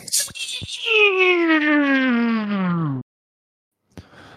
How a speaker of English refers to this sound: I've got uh, somebody in the shower next door to the room that we're in.